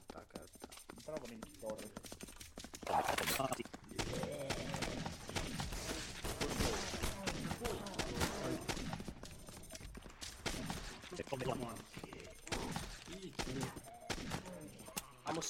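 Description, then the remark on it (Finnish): Rapid, repeated video game gunfire crackles in dense bursts for most of the stretch, loud, with brief pauses between volleys and a voice talking underneath. “No niin tuo raivosto selvästi kun mä vähän ammuin sitä.”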